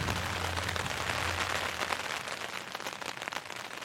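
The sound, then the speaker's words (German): Steady rain patters densely on a surface, a continuous hiss of drops with a faint low rumble beneath, holding an even loudness throughout with no voices, on a rainy day during a bicycle tour through Washington. “Ich glaube, ich mache jetzt erstmal einen Kaffee und dann versuche ich ein bisschen warm zu werden und irgendwie Motivation zu finden, zusammenzupacken und dann den ganzen Tag lang durch den Regen zu radeln.”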